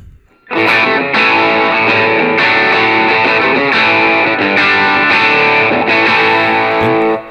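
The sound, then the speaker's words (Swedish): A distorted electric guitar plays steady chords for about seven seconds, loud, with a moderately driven, slightly cleaner crunch rather than heavy saturation, the gain backed off and more treble added. No one speaks over it. “Så, kör lite mer topp. testar att backa lite gain faktiskt. Se här, hur låter vi då?”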